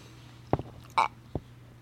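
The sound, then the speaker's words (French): Sips of water being gulped down: three short wet swallowing sounds, the middle one louder and fuller, with a faint steady hum underneath and no talking. “prend une, une gorgée d'eau.”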